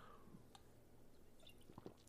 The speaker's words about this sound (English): By the way, sorry for hitting the mic there with my with my water bottle. Very sorry, very very sorry.